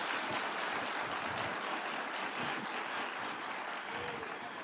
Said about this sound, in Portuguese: Sim, dê para Jesus uma forte salva de palmas.